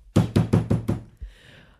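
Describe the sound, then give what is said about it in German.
Five loud, heavy police-style knocks land on a door in quick, even succession, each a booming thud, followed by a softer bump and faint rustling. “Da stand ich dann vor der Tür, dann habe ich wieder mein legendäres ähm, Bullenklopfen gemacht, habe wieder so.”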